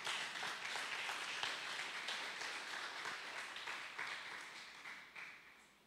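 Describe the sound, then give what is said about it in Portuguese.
An audience applauding steadily during a church sermon, many hands clapping in a dense, sustained wash that fades slightly toward the end, with no one speaking over it. “Você pode aplaudir o Senhor por isso?”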